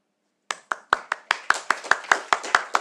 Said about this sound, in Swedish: Så jag, igen, en stor, jag tycker vi ska säga en applåd för detta. 200 eh, avsnitt.